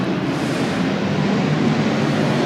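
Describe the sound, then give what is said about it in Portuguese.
A loud, steady roar of an airplane passing overhead fills the whole stretch, a dense rumbling wash with no voices and no letup. “Acabou de passar um avião aqui fazendo um barulhão.”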